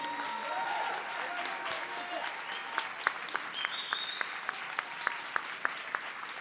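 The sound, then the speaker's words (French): A crowd applauds steadily for a group of gilets jaunes (yellow vest) protesters who had fought for several weeks without pay, a dense wash of many hands clapping, with sharper individual claps standing out in a loose rhythm toward the end. “Applaudissez-les parce qu'ils se sont battus”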